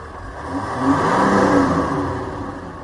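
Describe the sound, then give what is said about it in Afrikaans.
The diesel engine of a new 300C CRD test car idles steadily, a low continuous rumble with a slight swell in the middle, then settling back; no one speaks. “My toetsmodel, die CRD, net teen luierspoed kan jy hoor dis 'n diesel.”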